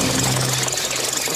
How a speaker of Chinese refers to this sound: 啊， 抱歉，是我的肚子在叫了。